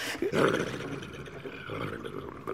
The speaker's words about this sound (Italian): Cos'è questo sbuffo? Un bufalo? Hai sentito?